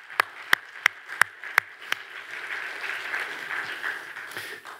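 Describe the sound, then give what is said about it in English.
An audience claps: six sharp, evenly spaced claps ring out first, then dissolve into a steady, softer wash of scattered group applause that continues to the end. “Come on, you clap for that.”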